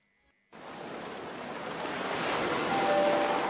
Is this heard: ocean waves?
yes